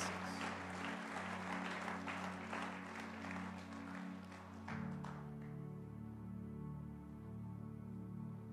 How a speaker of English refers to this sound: Come on, give God another clap offering. This is wonderful.